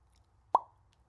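A single sharp pop made with the lips alone, without fingers, clear, with a quick hollow ring that fades fast; otherwise near silence, no talking.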